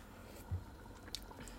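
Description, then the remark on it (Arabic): A quiet, quick taste of chicken broth from a spoon to check its saltiness: a soft wet slurp followed by faint mouth and liquid sounds and a small click, with no talking. “هلا انا رح اجيب معك معلقه هون ورح ذوق لتفة رح شوف شو أيوة.”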